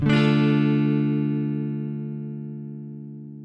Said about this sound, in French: Le flanger, qui est un effet additionnant le signal d'origine avec le même signal retardé, mais de façon variable. Le retard varie souvent de façon périodique entre 0,1 et 20 Hz.